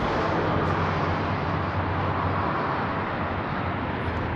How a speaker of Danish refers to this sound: Trafikken den øh, er ikke så hæftig som ved normal tid. Trafikken på Nilen er heller ikke så hæftig endnu.